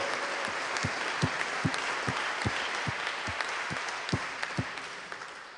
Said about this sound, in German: Hey, das sind, komm, gebt dem mal einen Applaus, den, den Musikern hier. Das sind wirklich leidenschaftliche Leute.